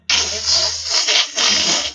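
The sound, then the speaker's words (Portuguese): A dial-up modem's connection screech: a loud, harsh, hissing burst of static with warbling surges, starting abruptly and running steadily for about two seconds with no voices. “E tinha aquele barulhinho, aquele chiado, né?”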